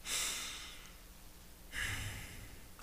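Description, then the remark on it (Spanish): A slow, deliberate deep breath taken during a meditation exercise focused on breathing: an airy inhale, a brief pause, then a long audible exhale, with no talking. “La meditación es concentrarse en tu respiración. Vamos a intentarlo”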